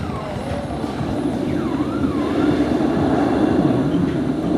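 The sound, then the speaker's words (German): A steady, breathy rushing like wind through a forest, the breathing sounds of an art installation, plays from a loudspeaker, with faint wavering tones gliding above the hiss; nobody speaks. “Ja, es klingt eher so wie so ein Wald. Wind im Wald.”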